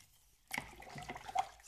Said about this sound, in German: So, und jetzt ist da hinten auch schon das Wasser so weit am Sieden, dass wir den Reis, die Tasse Reis mit reintun können.